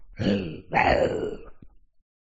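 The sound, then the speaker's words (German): A man's voice imitates an owlbear's growl in two rough, guttural bursts, a short grunt and then a longer rasping groan, fairly loud, with no other talk. “Es hört sich an wie, ihr habt ja schon mal einen gehört, wie ein Eulenbär.”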